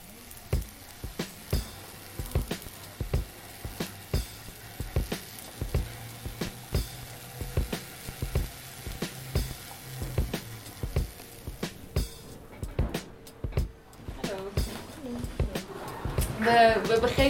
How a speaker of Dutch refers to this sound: Om er zeker van te zijn dat er niets mis zou gaan, ben ik toen vast hamburgers gaan bakken.